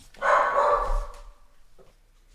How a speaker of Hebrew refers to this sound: אני, אני חייב לעשות פאוזה שנייה ולהשתיק את הכלבה שלי, זה, זה נהיה בלתי נסבל.